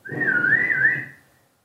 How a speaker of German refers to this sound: Oh, oh, da hat's gepfiffen. Das war die beschissenste Halbzeitpfeife, die ich je gehört habe, aber sie hat ihre Wirkung erzielt. Wir sind schon mit, dem, mit der ersten Hälfte durch.